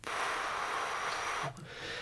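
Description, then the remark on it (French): A voice imitates the white-noise type of tinnitus with a steady, breathy hiss for about a second and a half, fairly loud, then it cuts off abruptly into a short, quieter breath. “Des acouphènes, alors il y en a deux types pour moi, il y a ceux dans les aigus, donc c'est le petit sifflement type ou sinon il y a le bruit blanc qui arrive”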